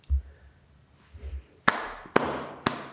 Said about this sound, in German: Jetzt applaudiert er sich echt selber. Ich fasse es nicht.